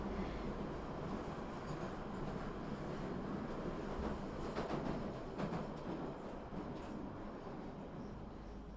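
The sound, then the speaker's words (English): A train rumbles steadily on its rails with a dense mechanical roar and a few brief clanks midway, the noise easing slightly toward the end as it slows down arriving at a station. “The train's slowing down.”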